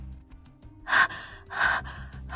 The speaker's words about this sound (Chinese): 眼前的这个小姑娘脸色煞白，眼睛睁得大大的，呼吸很困难的模样，更像是哮喘发作。这个时候，火光被一道阴影遮蔽了，像是卡在喉咙里的东西松动了。孟婉婉张大嘴喘息着，眼角滑下了泪，声音很艰难微弱。